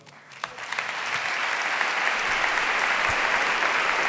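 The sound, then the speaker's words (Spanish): Audience applause swells up quickly and holds steady, a dense wash of many hands clapping at once with no voices standing out, at a Holy Week proclamation in Jaén, Spain, as the speaker refers to the Hermandad del Perdón. “En este caso, ha levantado el aplauso al referirse a la hermandad del perdón.”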